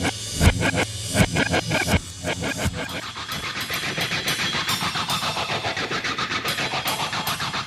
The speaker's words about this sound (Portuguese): Me parece muito scratch de palheta isso.